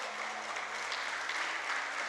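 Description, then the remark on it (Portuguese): A church audience claps loudly and continuously in praise of God, dense overlapping applause filling the space with a steady, bright roar and no pauses. “Você pode aplaudir o Senhor bem forte?”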